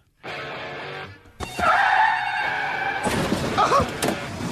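A roaring car engine cuts off in a sudden loud crash, followed by ringing metallic noise and a scattered clatter of breaking glass and debris.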